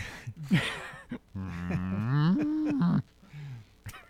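A cow gives one long, loud moo that rises in pitch and holds for over a second, preceded by a few shorter lowing grunts. The sound is clear, with no talking.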